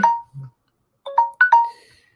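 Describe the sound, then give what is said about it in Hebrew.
A pomodoro timer alarm chimes at the end of a timed task: a short electronic tone, a brief pause, then a quick run of three bright ringtone-like notes that fade out, heard clearly with no talking. “הנה הטיימר שלי”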